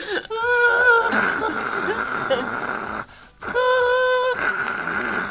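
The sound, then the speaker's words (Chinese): A voice imitates the snore of one of three people sleeping at a hotel in Korea, a snore that sounds like a boiling kettle: two long, high, whistling tones with a breathy hiss, separated by a short pause, fairly loud. “三个人有三种不同的打呼声，真他妈的有够精彩！”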